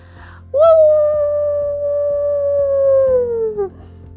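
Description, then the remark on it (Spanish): A single long dog howl, wolf-like, as the dog Moca howls at the golden moon as loud as he can, rising sharply and then holding a steady pitch for about three seconds before sliding down and fading. It is loud and alone, over a faint low background hum. “Contempló la luna dorada y aulló lo más alto que pudo.”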